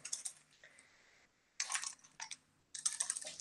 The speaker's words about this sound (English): I have put this on the keyboard just to, to press the button scan. So, so each time the scanner is over, there's a just a time lapse, few uh-huh. few, few seconds it waits, and then the Arduino takes uh, gets the the two fingers here